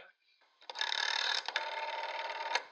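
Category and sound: household object, telephone being dialed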